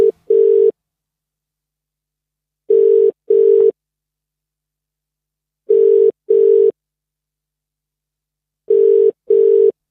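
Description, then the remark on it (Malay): An outgoing phone call to a listener who sent in a mystery story rings: steady mid-pitched double rings repeating four times at regular intervals, each pair of short tones followed by silence, with no voices. “Huh, ini jom kita call pemilik cerita.”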